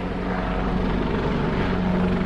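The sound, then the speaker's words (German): A military helicopter flying high passes overhead, its steady rotor drone and engine hum filling the air loudly and continuously, with no voices. “Äh, jetzt kommt hier gerade ein Hubschrauber. Ein, ein Militärhubschrauber wahrscheinlich.”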